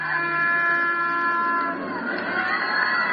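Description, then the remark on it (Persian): A loud, sustained train whistle holds a steady chord-like tone for a couple of seconds, then turns rougher and wavering over a background rumble. No voices are heard. “خیلی واضح میبینمش خیلی واضح از تو چشمای بچه هایی میبینمش که دارن میدوان دنبال سوت قطار”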